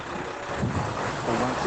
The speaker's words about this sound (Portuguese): Muitos carros e também algum vento estão a impedir-nos de ouvi-lo da melhor forma.